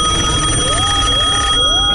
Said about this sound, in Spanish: ¿Recuerdas el antiguo teléfono de casa y su clásico timbre?